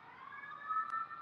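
Emergency vehicle sirens wail steadily from outside, muffled, a sustained tonal whine holding at a fairly low level with no voices over it.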